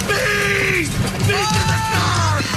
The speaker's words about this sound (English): in the video, officers can be heard yelling in pain and saying that there were yellow jackets everywhere.